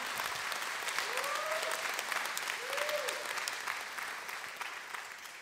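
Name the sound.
audience clapping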